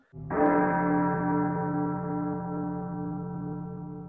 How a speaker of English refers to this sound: When the chimes of a neighboring church struck a quarter, so he listened for the hour.